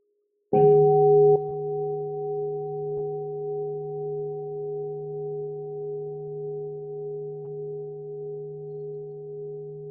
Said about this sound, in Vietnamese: xin sư cô thỉnh một tiếng chuông